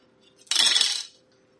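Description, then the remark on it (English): A handful of dice, rolled for a perception roll in a tabletop game, clatters across a table in one quick rattle lasting about half a second, then all falls quiet again with no voices. “I'll get him to make a perception roll too. Okay. Three's enough. What I wanted. I just want to know if he will notice it too.”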